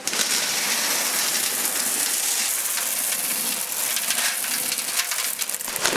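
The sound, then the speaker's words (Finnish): Lightweight gravel pours steadily into the bottom of a plant pot to form a layer two to three centimetres deep, a continuous dense rattling hiss of small stones that stays loud and even for several seconds, with no talking. “Noin, muutama sentti, pari senttiä, kolme senttiä pohjalle sitä soraa.”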